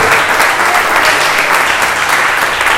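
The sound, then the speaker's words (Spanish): An audience at a night church service claps steadily for Jesus, a dense wash of many hands applauding at a constant loud level for the whole stretch, with no voices standing out. “Si le vas a aplaudir en esta noche, pueda aplaudirle en esta noche.”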